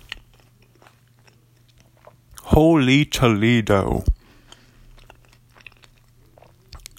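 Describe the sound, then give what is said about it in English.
Wet chewing and mouth noises from a huge bite of pizza topped with coleslaw and Cholula hot sauce, chewed on the microphone, click and smack softly throughout, briefly interrupted by a loud exclaiming voice in the middle, with a low steady hum underneath. “Sorry about chewing on the mic. I just had a huge bite right there.”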